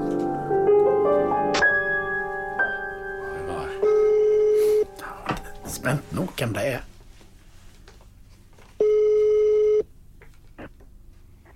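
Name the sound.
telephone call ringing tone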